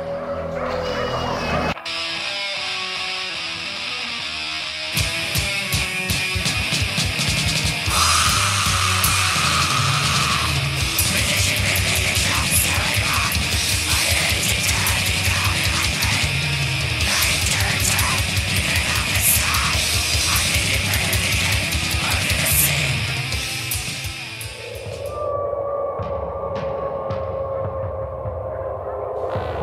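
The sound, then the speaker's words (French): Raw, primitive Polish black metal with medieval-sounding riffs and a raw sound: a dense wall of buzzing distorted guitar and pounding drums, framed by a short murky intro and a fading, sustained tonal passage at the end. “black metal polonais bien primitif, les riffs moyenâgeux sont là, le son cru à la basorie, l'ambiance loup planquée dans la forêt des Carpates.”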